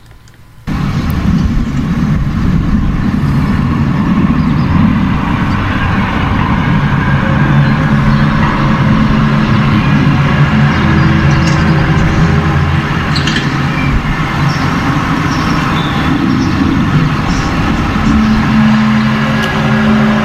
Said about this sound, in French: Ça, c'est de la tôle froissée, comme on dit. Le son, le hum, de, la, tôle. Euh, ça donne l'impression comme quand les bennes en acier sont tassées sur l'asphalte, ça va donner ce bruit-là. Exactement. Sauf que celui-là, il a été pris en plein bois.